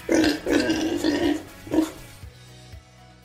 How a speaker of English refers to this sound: I hear you oinking piggy bank. Don't worry, your belly will be full soon enough.